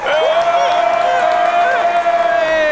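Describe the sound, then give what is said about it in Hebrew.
A loud, continuous wash of crowd cheering and applause played to close the radio show Metal Metal, with a steady high whistle-like tone held throughout the few seconds, and no clear speech. “בוא נעשה המרה של מלא קהל וזה.”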